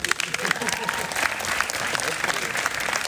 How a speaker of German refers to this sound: Wir müssen Applaus für Janine, bitte.